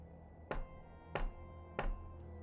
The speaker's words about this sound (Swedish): det knackar på dörren.